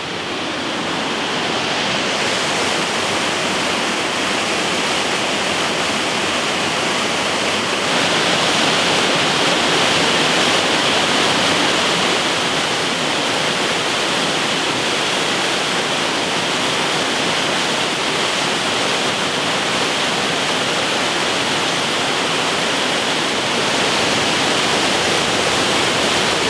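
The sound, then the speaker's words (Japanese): The Ryuzu Falls, one of the three famous waterfalls of Oku-Nikko, Japan, roars steadily, a dense unbroken rush of falling water that fills the whole clip without pause. No voices are heard. “今朝は奥日光三霊瀑の一つ竜頭の滝が響かせるいい音それではお聴きください”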